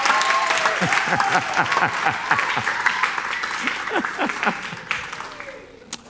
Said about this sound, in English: All those who are not clapping, I suspect you big time.